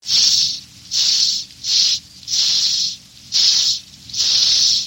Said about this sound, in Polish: odwłoka i wtedy powstaje dźwięk takiego syku bardzo głośnego